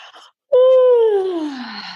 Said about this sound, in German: dann gähnen wir